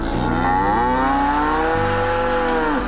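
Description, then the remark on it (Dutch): A cow lets out one long, loud, drawn-out moo lasting a few seconds, steady, its pitch shifting slightly before it breaks off abruptly. No one talks over it. “En ook de koeien zeggen zelf:”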